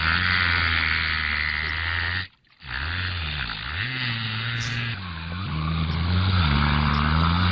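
An orca imitates a boat engine: a loud, steady low drone with a wavering, revving pitch, briefly cutting out once before rumbling on.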